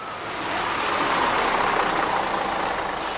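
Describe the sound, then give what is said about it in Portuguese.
A bus rumbles past with a broad whooshing roar that swells in quickly, holds steady and begins to ease away at the end. No voices are heard. “Bom, então vamos aproveitar que o ônibus passou e pegar uma carona para o intervalo.”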